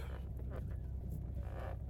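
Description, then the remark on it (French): A rental car's engine hums low and steady as it slowly reverses to park right next to another parked car, with faint voices murmuring over the rumble. “Bon, petite marche arrière, hein, comme d'habitude, parce qu'on est intelligent.”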